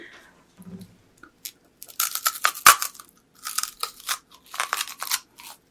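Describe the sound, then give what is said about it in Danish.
Loud crunching as someone bites into a candy apple, getting some of the apple in the bite, followed by a run of crisp, irregular chewing crunches with brief pauses between bites. “Du, Men skal, så du skal jo have et bid, hvor du også får noget æblet med, sådan her.”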